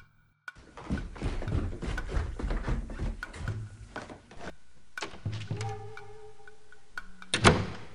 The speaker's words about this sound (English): Eisen walked confidently down the stairs to the front door, opened it, and stepped outside